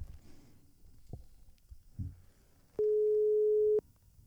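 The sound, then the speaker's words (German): A single steady telephone ringing tone sounds for about a second, a clear mid-pitched beep heard over a call line as a call is placed to a person who does not answer, after some faint low rumbling and clicks. “Es klingelt.”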